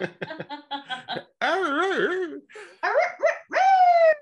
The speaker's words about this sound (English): You got to set your dog off though. I know. I will.